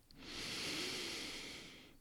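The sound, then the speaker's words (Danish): A long, deep inhale through the nose during a guided breathing exercise, taken after an exhale, a steady airy rush that swells and holds for nearly two seconds before fading. Fairly soft, with no talking. “Og så tager du en dyb vejrtrækning ind igennem næsen.”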